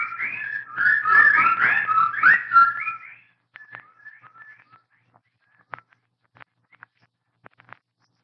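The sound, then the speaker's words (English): A dense chorus of shrill, warbling bird calls rises loudly for a few seconds, then thins out into sparse, scattered chirps and faint peeps with quiet gaps between them. “the birds, they didn't get him.”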